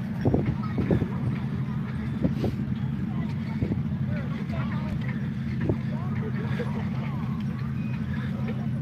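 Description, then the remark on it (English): A parade rolls past: a steady, loud low engine rumble underlies everything, with murmuring voices and scattered sharp clacks and knocks throughout. “So just sit back and listen to the sounds of the parade.”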